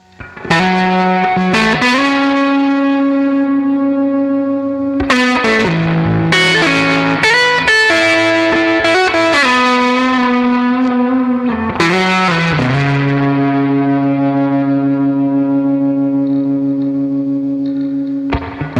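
A rock song is played on air for listeners, loud and steady, with thick, distorted guitar chords that hold and then shift every few seconds. There is no talking over the music.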